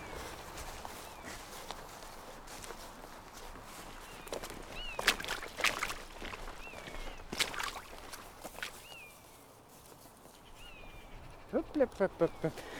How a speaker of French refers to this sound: Moi bon, ici, on va devoir contourner les vaches. Bonjour les vaches. Oh, vous avez pas souvent du monde par ici.